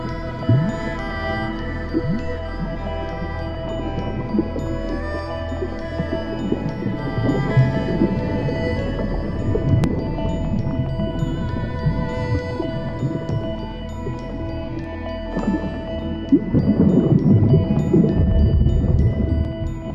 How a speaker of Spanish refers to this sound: Lleva tu atención a tus sentidos. Escucha los suaves sonidos del agua que te rodean.